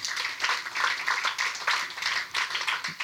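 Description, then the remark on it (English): A crowd applauds steadily for a writer and poet being introduced at an evening event, many hands clapping in a dense, continuous patter that holds at a fairly even level for a few seconds, with no voices on top. “Big round of applause for her.”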